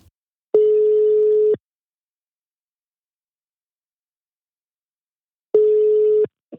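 A phone ringback tone: two steady, loud beeps about a second long, separated by roughly four seconds of silence, heard alone with no talking.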